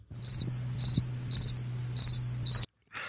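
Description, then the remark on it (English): A cricket chirps in five quick, evenly spaced bursts, each a rapid trill of shrill pulses, over a faint low hum, ending abruptly with a brief soft hiss. “where's the crickets? We need the crickets.”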